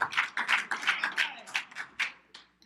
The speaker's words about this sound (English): Um, thank you guys for encouraging me with your claps and your smiles.